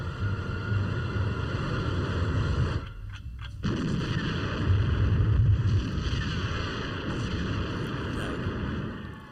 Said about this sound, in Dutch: En dan, ja, nee, dan laat ik je heel even een stukje van die, eh, van die film horen. Het begint met prachtige muziek en het eindigt met een explosie.